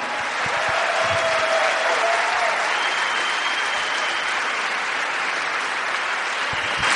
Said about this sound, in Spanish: Denle un fuerte aplauso a todos sus diamantes. Que lo escuchen en casa.